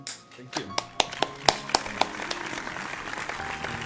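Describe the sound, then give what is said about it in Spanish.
Audience applause at a poetry reading, given for the audience themselves, that begins with a few sharp, evenly spaced claps, then swells into a steady, dense patter of many hands clapping, with voices murmuring underneath. “Bien, gracias por ah, venir y un aplauso para ustedes también.”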